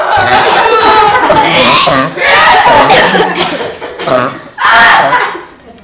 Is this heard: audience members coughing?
yes